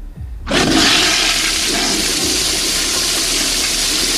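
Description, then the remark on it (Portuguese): A toilet flush sound effect plays loudly after a brief quiet moment, its rushing water roar starting abruptly and holding steady for several seconds, with no voices. “Tem quantas descargas aí ainda?”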